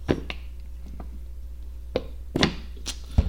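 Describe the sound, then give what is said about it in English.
Suction noise from a water bottle being played with: a handful of sharp, irregular pops and clicks, fairly quiet, with no talking over them. “So sorry for that suction noise.”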